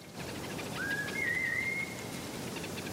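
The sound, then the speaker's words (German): A single sustained human whistle, made by a Hadza person in Tanzania to call honeyguide birds, rising then holding a wavering, warbling tone for about a second, sounding outdoors over a steady hiss of rain-like background noise. “Die Hadza, ein in Tansania lebendes Naturvolk, rufen die Tiere mit Pfeiftönen zu sich.”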